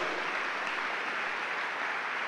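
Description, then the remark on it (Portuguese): An audience claps steadily together in applause for Jesus, a dense, even wash of applause that holds at a constant level for the full couple of seconds, with no voices rising above it. “Se aplaude Jesus.”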